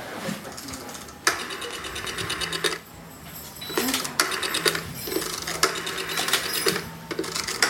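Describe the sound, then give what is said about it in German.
An old mechanical cash register being worked in an old-fashioned corner shop (Tante-Emma-Laden): rapid, rattling key-and-lever clatter in bursts, with bright metallic ringing and a few sharp clunks, fairly loud throughout. “Guck mal, eine alte Kasse.”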